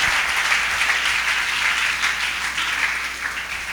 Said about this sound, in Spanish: Dale al Señor ese aplauso, por favor.